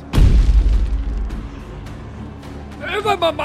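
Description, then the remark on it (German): A sudden, heavy landmine explosion in a minefield booms, its deep rumble slowly fading over a couple of seconds before a voice starts talking at the end. “Und die Explosion findet nicht direkt an dir, sondern ein Stück hinter dir statt.”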